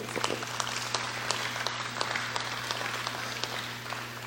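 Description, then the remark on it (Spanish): An audience applauds the rich young man of the Bible story for about four seconds, many overlapping claps forming a steady, crackling patter at moderate volume over a low electrical hum, with no talking. “Denle un aplauso al joven rico,”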